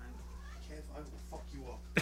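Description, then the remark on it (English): A cat meows a few times in quick succession, moderately loud, ending with a sharp knock or bump. “Take care of your cat.”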